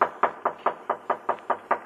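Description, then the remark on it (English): Eight or nine quick, evenly spaced knocks on a wooden door, moderately loud, with no voices over them. “Someone's knocking at the door.”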